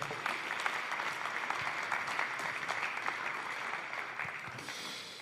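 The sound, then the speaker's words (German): Steady applause from a church audience for a guest called onto the stage before the sermon, a dense crackle of many hands clapping at once, holding at an even, fairly loud level for several seconds with no voices standing out. “So, ein Applaus für ihn, dass er heute jetzt hier.”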